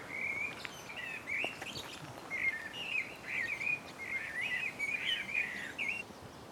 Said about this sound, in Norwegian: Og ja, hør, hør på, på Svarttrosten har ja. konsert, altså. Det er jo midt i blinken.